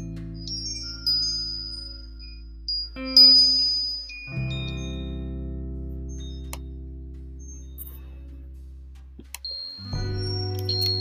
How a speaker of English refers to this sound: I'll let you listen to the wind chime music for a moment.